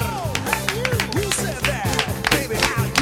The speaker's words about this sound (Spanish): Aplausos para ella, por favor.